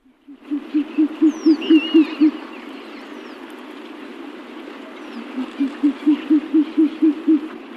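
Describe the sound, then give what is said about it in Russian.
Two bursts of low, rapid, evenly spaced hoots from a short-eared owl, each series of about seven to eight notes, heard over a steady outdoor background with faint higher bird calls. “Ну что, теперь послушаем болотную сову?”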